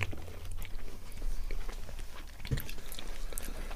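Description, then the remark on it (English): Chewing and munching on a sweet with pieces of cherry in it, soft yet slightly crunchy, with irregular wet bites and a sharper crunch partway through, heard on its own without talk. “What are you thinking of that as you're munching down on that?”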